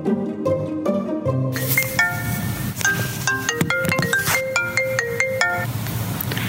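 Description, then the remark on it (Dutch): A phone rings with a melodic ringtone, bright electronic notes stepping up and down in a repeating pattern, loud over a low, steady background, with no one talking. “Maar die moeite lijkt Gerard bespaard als een paar weken later mijn telefoon gaat.”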